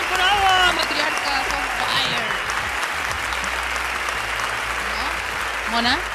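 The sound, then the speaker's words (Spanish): Sustained, dense applause from a crowd marking the start of a fifth season fills the whole stretch at a steady loud level, with scattered cheers and a few voices calling out over the clapping. “Eh, con tanto aplauso no te escucho, ¿qué quieres que te diga?”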